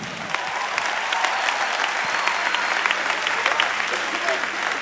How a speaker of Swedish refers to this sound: Du vet, man, och, en applåd